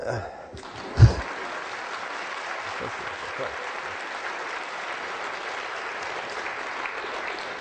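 Sustained audience applause, a dense, steady wash of many hands clapping that begins with a brief sharp thump and holds at an even level to the end.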